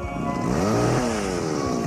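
A chainsaw engine runs loudly and steadily, its buzzing whine climbing in pitch and then dropping back as it revs, with no voices over it.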